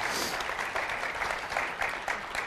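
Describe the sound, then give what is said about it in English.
A crowd of people claps steadily for a man who has shared his testimony of faith, a dense, sustained wash of applause that holds at an even level for a couple of seconds without any talking over it. “let's give Chris a hand and just uh, celebrate God's work in your life”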